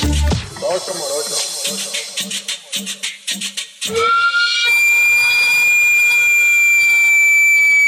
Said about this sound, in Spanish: Hay un sonido muy característico de la ciudad, odiado por muchos por su estruendo, pero no para quienes conocen la dulzura que lo envuelve. Se trata del camotero, que con ese peculiar zumbido anuncia su llegada en un carrito de lámina galvanizada